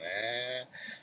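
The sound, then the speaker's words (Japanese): An election campaign car driving by, heard from inside a car, its loudspeaker blaring a long, drawn-out amplified voice, harsh and nasal with a buzzy tone, holding steady for over half a second before a brief dip and a weaker continuation. “選挙カーうるさいかなあの、かえって、あの、イメージ悪くしちゃいかねないので、ちょっと時間と場所を考えてほしいかなっていうふうには思うんですけども、はい。”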